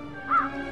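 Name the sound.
crow cawing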